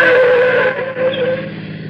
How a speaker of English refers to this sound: The patrol car let me roll ahead and swung in behind us, and we came to a stop.